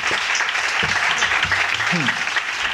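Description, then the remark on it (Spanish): A small group applauding loudly and steadily at a small concert in a radio studio, a dense patter of handclaps that never lets up, with faint voices murmuring underneath. “Pero aplauden fuerte, eh, que es lo importante.”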